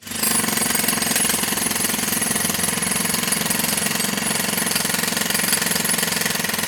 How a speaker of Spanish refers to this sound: Y no sé si ustedes han escuchado ese sonido, ese sonido de un martillo neumático. Quiero que lo escuchen.